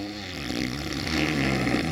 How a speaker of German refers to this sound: du schnarchst!